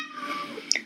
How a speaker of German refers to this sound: Ähm, ja, das war meine Katze Faye. Sie möchte sich auch sehr gerne beteiligen an diesem Podcast.